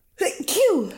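A single loud sneeze: a quick breathy intake followed by a sharp explosive burst with a voiced tail that falls away, heard on its own.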